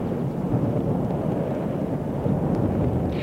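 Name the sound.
rain and wind outdoors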